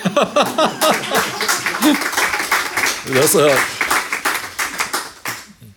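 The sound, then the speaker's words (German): An audience's burst of hand clapping rattles along steadily under talking voices, mixed with some laughter partway through before fading near the end. “wollte gerade klatschen.”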